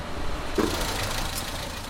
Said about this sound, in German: Ein Auto fährt vor. Eine junge Frau will Haschisch kaufen.